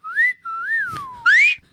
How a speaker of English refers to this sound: that was a good whistle I just did. It was perfect.